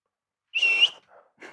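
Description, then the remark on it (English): A single short, sharp human whistle calling someone in at a high school football field house in Texas, fairly loud, held steadily for under half a second, followed by faint, soft noises and no talking. “you know the little whistle.”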